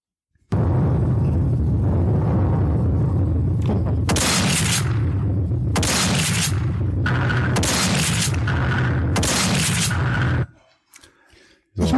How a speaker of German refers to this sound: Und jetzt die Shotgun aus dem Jahr 2016.